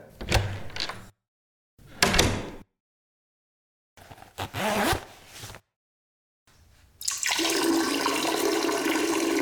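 Someone rattles a stuck door at a doctor's practice in three short, forceful bursts with pauses between, followed by a steady rushing noise like water that continues to the end. No one speaks.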